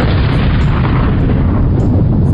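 A huge cosmic explosion roars on as one continuous, loud, heavy rumble with deep low-end weight and crackling noise, holding steady for a couple of seconds with no voices.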